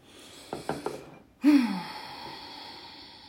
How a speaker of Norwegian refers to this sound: Og en til. Ta et dypt pust sammen med meg.